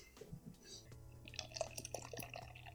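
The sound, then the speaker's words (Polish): A drink being poured into a glass, with bright trickling and small splashing sounds over a steady low hum, and a voice murmuring briefly at the start. “A nie, no taki, taki dźwięk jak się polewa, to nie można odpuścić, nie?”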